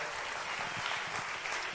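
An audience claps steadily, a dense wash of many overlapping hand claps at an even, sustained loudness throughout, with no voices standing out.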